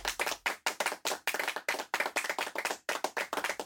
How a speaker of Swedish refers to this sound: Biffen, fiskbullen och alla som stod och tittade, de var förbluffade och började sedan sakta applådera.